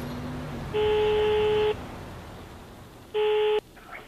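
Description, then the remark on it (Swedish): Two steady electronic telephone ringing tones as a call is placed to Alan Roberts, a police officer at the UK National Wildlife Crime Unit. The first tone lasts about a second and the second is shorter, with a brief pause between them, over a faint background hum. “Jag ringer upp Alan Roberts, polis på National Wildlife Crime Unit en avdelning som jobbar med att få fast bland annat äggsamlare i Storbritannien.”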